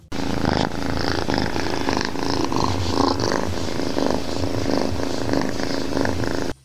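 A cat purrs right up against the microphone, a steady, loud rumbling drone with rhythmic pulses of breath, continuous for several seconds with no talking.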